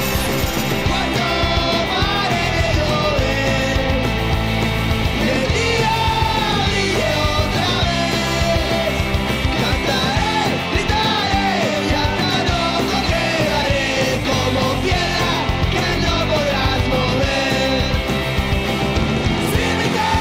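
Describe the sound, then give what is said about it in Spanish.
A punk rock song by a Puerto Rican punk band plays loud and dense throughout, with shouted, raw vocals over driving distorted guitars and pounding drums that never let up. “pensamos en escena punk de Puerto Rico, tenemos que incluir sí o sí esta banda.”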